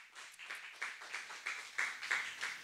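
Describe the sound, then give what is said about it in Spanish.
A group of people at a Christian praise and worship service clap their hands together in a steady, rhythmic beat, the sharp crisp claps blending into a continuous patter with regular accents roughly three times a second. “Eres fuerte esas palmas.”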